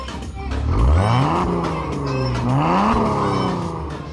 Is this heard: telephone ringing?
no